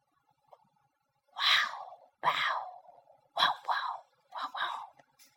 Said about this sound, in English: Dad said, "Don't worry, it's only a dog." 爸爸说：“别害怕，不过是一只狗。”